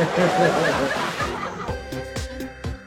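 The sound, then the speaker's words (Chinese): A noisy splash and slosh of water as a penguin jumps from a tour boat back into the sea fills the opening second and a half, then fades while people break into short bursts of chuckling and laughter. “这个企鹅在躲开追捕之后，又从船上跳下，回到了海中。”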